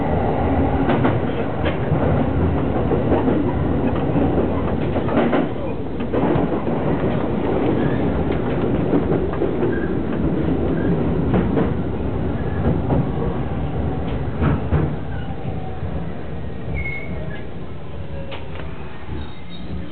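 A train rumbles steadily at a station for about twenty seconds, a dense low roar with scattered clicks and clacks of wheels on rails, loud and continuous with no voices.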